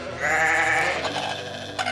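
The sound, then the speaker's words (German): A sheep, one of three on a farm, bleats once in a long, wavering, nasal cry lasting over a second, clear, followed by quieter farmyard background. “Da hinten sind noch drei Schafe.”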